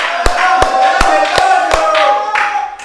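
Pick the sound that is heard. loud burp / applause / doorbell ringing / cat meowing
applause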